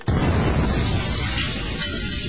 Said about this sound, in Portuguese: Ouça esta tampinha de caneta caindo no chão sem áudio power. Agora ouça a tampinha com áudio power